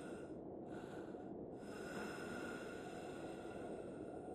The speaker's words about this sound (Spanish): Acto seguido, comenzó a respirar pesadamente, a la vez que emitía una especie de ronquido que le calaba los oídos.